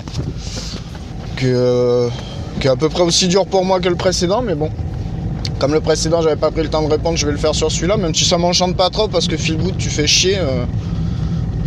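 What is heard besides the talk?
car interior noise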